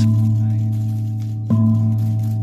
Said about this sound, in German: Ja, Donnerstag früh war Eröffnungsfeier mit neuem Duft und da wurde dieser neue Glanz mit Indonesien chinesischen Gongschlägen besiegelt.